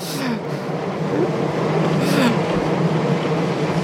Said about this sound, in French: C'est vrai qu'il fait beaucoup de bruit le métro ici. C'est une vieille techno, alors elle fait un peu de bruit.